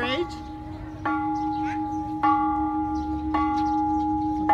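A hand-rung bell is struck four times at steady intervals of about a second, each clang ringing on and overlapping the next, fairly loud with no talking. The bell is rung as a tradition, nine strokes or one stroke for each year of the ringer's age.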